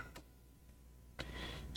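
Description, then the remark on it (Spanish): Three sharp clicks from a spaceship's onboard computer at uneven intervals, fairly quiet, with a faint electronic hum between them and no voices. “le informó de que siempre que emitía un clic”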